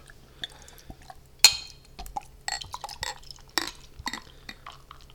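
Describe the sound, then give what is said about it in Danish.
A sharp clink of glass, then the rest of a Danevang Dunkel, a dark beer, glugs into a glass in uneven, bubbly bursts for a few seconds, with faint low hum underneath and no talking. “Men øh, lad os hælde resten af den op.”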